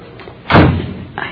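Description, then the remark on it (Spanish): A door slams shut once, loud, with a heavy thud that rumbles briefly before fading into quiet background noise. “Parece que sonó la puerta.”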